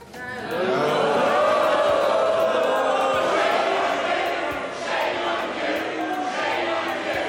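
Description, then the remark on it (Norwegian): Members of the UK House of Commons chanting "Shame on you" together in a loud, sustained roar as Boris Johnson's government prorogued Parliament, the shouted phrase repeating rhythmically over several seconds with overlapping cries and jeers. “Skam dere! Skam dere! Skam dere! ropte de folkevalgte.”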